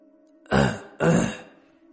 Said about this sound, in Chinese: 邢教授有些尴尬的咳嗽了两声。